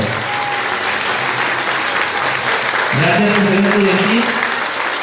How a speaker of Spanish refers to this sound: Recuerden, apreciados estudiantes, que ante cualquier situación, este grupo de estudiantes será su mano derecha a lo largo de este año escolar. Regalémosle, antes de que regresen a sus puestos, un fuerte aplauso, por favor.